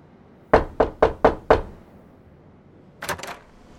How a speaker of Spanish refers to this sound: Llamo a la puerta y espero unos segundos.